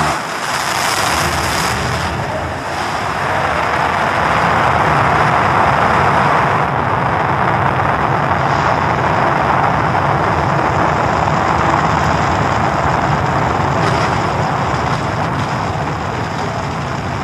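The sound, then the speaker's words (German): A rocket launch engine roars steadily and loudly for the whole stretch, a dense rushing rumble with a rough, crackling texture and no voices over it. “Das kommt im Raketenstart schon.”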